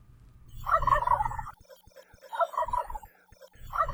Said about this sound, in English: the wild turkey's gobble gobble gobble has been charting at number one in the bird world, bird world for 200 straight Thanksgivings.